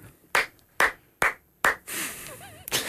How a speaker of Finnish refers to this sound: Pienet aplodit oli pakko laittaa väliin, niin ihailtavaa puhetta oli.